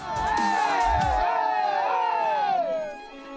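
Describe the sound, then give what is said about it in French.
A crowd of spectators on the heights of Saint-Christo-en-Jarez, at minus 4 to minus 6 degrees, cheers and shouts encouragement for passing race runners, a sustained burst of high, overlapping voices and whoops that stays loud throughout before easing slightly at the end. “On est là pour les encourager parce qu'on sait ce que c'est.”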